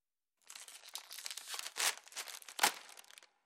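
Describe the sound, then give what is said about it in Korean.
Continuous crinkling and tearing of thin plastic film being peeled off a tofu package for about three seconds, with a sharper rip near the end, heard alone without any talking. “비닐을 벗기고 차가운 물 속에 잠겨 있는 두부를 조심스럽게 꺼내 도마에 올려놓으세요.”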